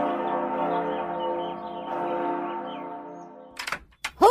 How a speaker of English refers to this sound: rang that bell? I did.